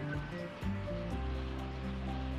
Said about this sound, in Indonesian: ini kenapa gue ngerasa ngedenger ada yang hujan deh